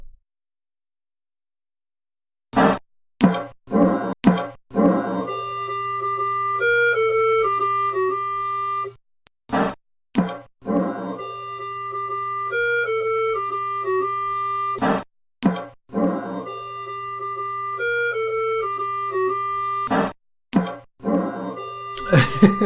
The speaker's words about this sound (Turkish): Şeyi fark ediyordur e, kulaklığı olanlar. Sesin panlandığını, sağdaki oyuncu vurulunca sağ taraftan kurşun sesi geliyor. Soldaki vurulunca sol taraftan geliyor. Muhtemelen bir mastering eseri bu.